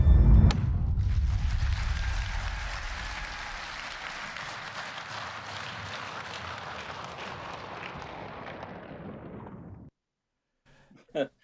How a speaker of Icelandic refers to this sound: Já, já þingið klappaði, það var klappað fyrir henni þarna